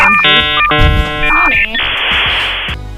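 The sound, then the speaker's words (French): A 56K dial-up modem handshake: steady dialing tones, warbling squeals and chirps, then a loud burst of hissing static that cuts off abruptly. Prominent, with no voices. “Je vais revenir sur les sites qui ont marqué notre adolescence au son de la douce mélodie d'un modem 56K.”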